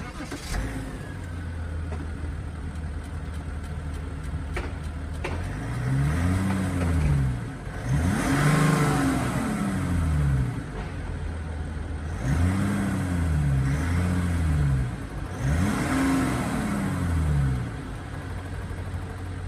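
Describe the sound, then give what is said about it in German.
A six-cylinder diesel engine in a 278 PS car idles steadily while stationary, then revs up and back down in four distinct bursts, each climbing smoothly before falling back to a low rumble; fairly loud, no talking. “Ja, damit würde ich sagen, lass uns doch mal den Sechszylinder Diesel anschmeißen.”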